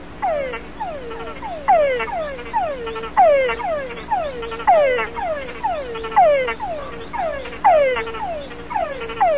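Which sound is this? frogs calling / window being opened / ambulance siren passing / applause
frogs calling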